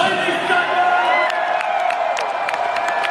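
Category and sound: crowd, wrestling crowd cheering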